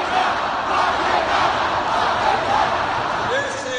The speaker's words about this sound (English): you can't hear it clearly, it was the crowd chanting, Lock him up. We should note that Sanders did not encourage the crowd to say this. He did not participate in it. He didn't shut it down either.